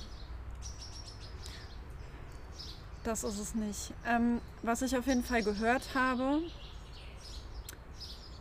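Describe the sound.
Faint birdsong chirps scattered throughout in a garden on a 32-degree summer day in 2021, with short high tweets recurring in the background while a person speaks in the middle.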